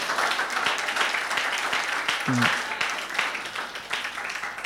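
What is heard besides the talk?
audience clapping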